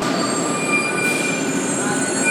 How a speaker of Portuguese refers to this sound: Chegou o nosso trem.